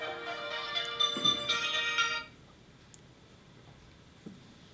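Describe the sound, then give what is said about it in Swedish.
A smartphone ringtone plays a bright, melodic tune for about two seconds, then cuts off abruptly as the phone is flipped over, leaving quiet background noise with a couple of faint soft taps. “Slickt att bara vända på telefonen sådär alltså.”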